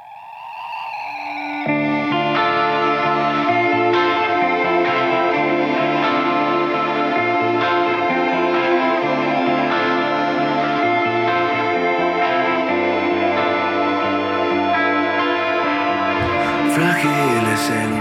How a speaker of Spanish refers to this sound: ¿Pero sabes quién son o, Ahora mismo me, pillas un poco, pero vamos, que lo he oído un, montón de veces. Sé que es un grupo de aquí.